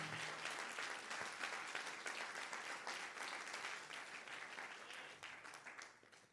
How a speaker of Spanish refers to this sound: Vamos, denle un aplauso fuerte a Jesús si usted lo entiende.